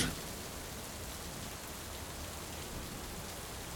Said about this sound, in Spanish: La tormenta parecía no terminar.